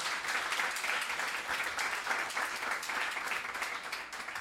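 A crowd applauds steadily to welcome two co-hosts, a dense wash of many hands clapping at once, sustained and fairly loud throughout with no voices rising above it.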